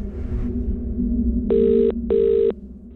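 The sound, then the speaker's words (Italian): A telephone rings twice, each a steady electronic tone lasting under half a second with a brief gap between, over a constant low hum. No one speaks. “Quelle telefonate che si sentono all'inizio della puntata 4 restituiscono molto proprio l'idea di chi sia Danilo Restivo.”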